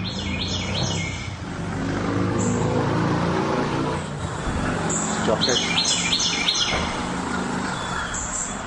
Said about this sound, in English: I was going to see if we could find the Carolina wren. Carolina's got a kind of a rufous color, white over its eye, chubby little thing. A chubby wren. A happy chubby wren up and down.